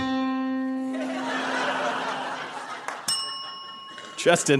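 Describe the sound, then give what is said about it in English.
A single middle C plucked on a guitar rings out clearly and fades within a second or so. Laughter follows, then a bright bell-like ding and a brief spoken word. “Middle C.”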